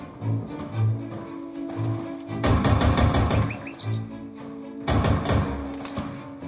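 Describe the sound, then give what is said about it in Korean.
A faint, distant bird whistles a brief high chirping phrase, set against the heavy thudding footsteps of someone running hard and loud, sharp bursts of gunfire that come and go. This is from a stereo-sound radio broadcast in Guangzhou, China. “숨가쁘게 달리는 소리, 주변에서 울리는 총소리, 그리고 멀리서 들리는 새소리가 생생하게 느껴지는데요.”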